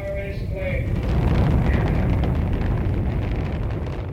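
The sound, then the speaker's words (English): A spacecraft rocket launch: a loud, steady, rumbling roar with heavy low-end thunder and crackling texture, sustained without a break and sounding powerful. “About halfway through the track, we hear the first signs of human life a heartbeat, footsteps, the first tools, then modern tools, transportation, the launch of a spacecraft.”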